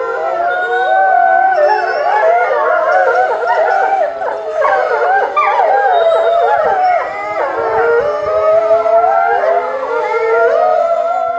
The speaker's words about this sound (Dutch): Wij waren aan het huilen met de wolf in het bos. Wij, dit, waren, dit waren nou huilende wolven. Ik wist niet dat het zo klonk.